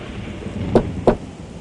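Steady rain hisses during an evening thunderstorm, broken by two short, sharp cracks close together, with no voices present.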